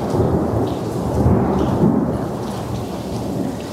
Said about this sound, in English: the thunder agrees. It's accenting my words here.